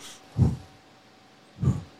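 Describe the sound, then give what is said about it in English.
Someone takes two short, shallow breaths about a second apart, demonstrating shallow breathing, with quiet pauses around them. There is no talking. “You got to take like short, shallow breaths.”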